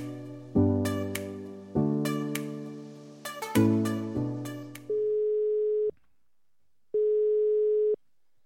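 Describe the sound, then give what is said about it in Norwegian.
A short run of bright chiming electronic tones, then the telephone ringing tone while a call is placed: two steady one-second beeps separated by a pause, clear with no voices. “Vi kan jo avsløre det at vi har fått et lite tips om at vi bør ta en liten telefon”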